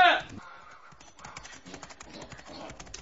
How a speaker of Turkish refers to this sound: Aa, amanın amanın bu anırma. Bu, bu anırma benim boz eşeğimin anırması. E, evet evet nerede olursa olsun tanırım onu. Görüyor musunuz sevgili efendim? Bütün kutsal şeyler üzerine yemin ederim ki şu gelen benim eşeğimdir.